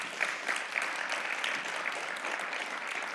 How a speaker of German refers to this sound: Und genau, erstmal klatschen.